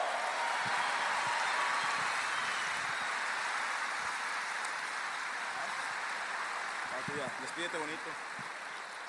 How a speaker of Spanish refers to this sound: ¡Fuerte el aplauso!